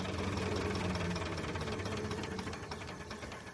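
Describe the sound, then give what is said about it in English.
A steam engine at the Cambridge Museum of Technology runs steadily, its rapid rhythmic chuffing and mechanical knocking forming a dense, even clatter with a low hum underneath, and no voices. “the main engine driver at the Cambridge Museum of Technology”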